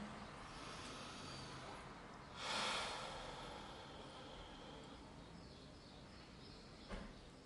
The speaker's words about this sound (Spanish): Entonces, pues vamos a comenzar con, un minutito de, silencio, de calma, con un par de respiraciones profundas, inhalando por la nariz y exhalando por la boca.